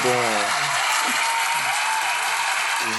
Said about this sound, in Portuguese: Fazer uma travada na plateia aí, bagulho. Muitas palmas para nós, por favor.